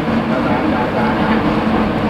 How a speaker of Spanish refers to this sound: Y si estás en este mismo vagón o en algún otro vagón de alguna línea de subte escuchando por 3G,